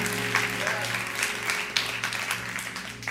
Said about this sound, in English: Give God some praise. I'm done preaching. Come on. Come on, really applaud the Lord and thank God for His word.